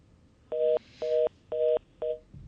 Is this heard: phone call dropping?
yes